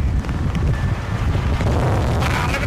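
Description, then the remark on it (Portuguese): Heavy wind from Storm Eunice in London buffets the microphone in a constant, loud low rumble with gusty bursts, a roaring outdoor blast with no voices, steady for the whole few seconds. “E como estava muito, muito, muito vento em Londres”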